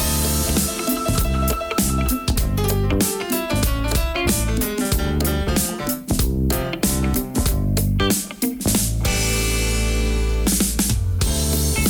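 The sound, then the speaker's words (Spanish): A newly released song, premiered the day before, plays loud and up front, with a full band of sustained melodic instruments over a steady, punchy drumbeat, continuing without pause and without anyone talking over it. “y así compartir cómo hasta el día de hoy acompañarlo en lo que es la presentación de sus nuevas canciones.”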